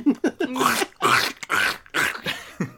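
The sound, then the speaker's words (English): A person imitates Scooby-Doo in a goofy cartoon-dog voice, a run of gruff, garbled, bark-like vocal bursts and growly syllables in quick succession, fairly loud, with no other sounds around it. “yeah, and then I was Scooby Doo crunch sound.”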